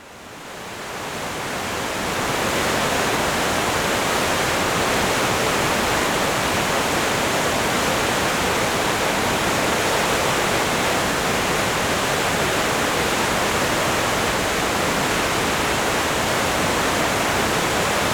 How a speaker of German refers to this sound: Innerhalb dieser kurzen Strecke überwindet der Fluss wild tosend und aufschäumend